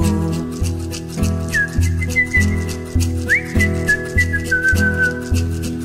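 A soft human whistle drifts over a steady, rhythmic musical backing, holding long gliding tones with a couple of upward slides, quiet and airy rather than shrill.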